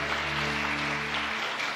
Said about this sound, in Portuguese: E quando você assentar, eu quero que você dê uma salva de palmas bem forte pelas nossas crianças que estão, estão presentes no nosso meio hoje.